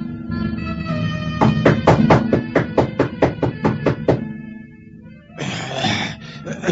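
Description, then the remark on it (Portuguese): A quick, even series of about ten sharp knocks on the wooden door of an old sorcerer, fairly loud, over a low sustained drone, followed by a rushing breathy noise. “Em poucos minutos, Saul bate à porta do velho Araches.”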